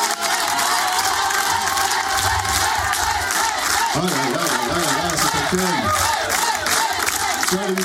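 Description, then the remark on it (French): A studio audience at a French radio show cheers and shouts loudly and continuously to welcome a singer for a live showcase: a dense roar of many voices with whoops and yells rising over it, sustained throughout without a break. “Top départ, merci de faire un maximum de bruit pour”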